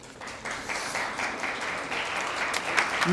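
Sustained applause from a studio audience after a joke, a dense steady patter of many hands clapping at moderate loudness for the full few seconds, with no speech over it.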